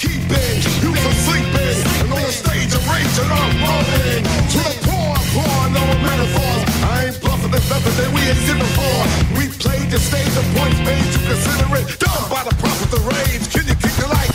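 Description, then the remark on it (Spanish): Loud, dense rock band music plays steadily throughout, with a heavy low end, driving beat and vocals over the full instrumentation, unbroken. “estos son los … conformado por miembros de …, … y …”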